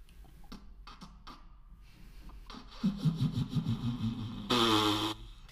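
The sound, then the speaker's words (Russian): A voice blows a long, sputtering raspberry that imitates farting, low and buzzy with uneven pulses, ending in a brief higher-pitched squeal. Fairly loud, with no talking over it. “я вас на SoundCloud запишу, просто библиотекой звук пердежа”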